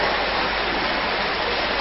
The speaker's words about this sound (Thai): ฝนตก เสียง เสียงไม่ค่อย ใสเท่าไหร่ ฝนตกเปาะแตก